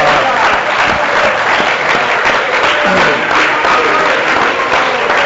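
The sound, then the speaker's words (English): An audience claps their hands together, a loud, dense wash of many overlapping claps with no steady beat, holding at an even level from start to finish. “I just want to clap my hands.”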